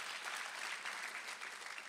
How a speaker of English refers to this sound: Come on, clap if you're grateful for His faithfulness and His love in your life.